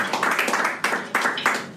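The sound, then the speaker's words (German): Applause from a small group of fellow participants in a comedy workshop course, with a handful of hands clapping in a loose, overlapping patter. The sound is moderately loud, and no one speaks over it. “ich war jedenfalls immer froh, wenn mir die Kollegen im Kurs etwas Applaus schenkten.”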